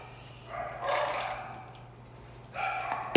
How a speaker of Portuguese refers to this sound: Ah, meu cachorro tá latindo agora.